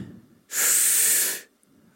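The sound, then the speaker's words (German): A single deep, airy breath is drawn in, a loud rushing hiss lasting about a second, set against a quiet background with no talking. It is the breath of Jesus, lying wrapped in cloths, in an Easter video. “Es hat mich so berührt in diesem Video, einfach dieser letzte Moment, wo Jesus in diesen äh, Tüchern gewickelt dort liegt und dann dieser Atemzug kommt.”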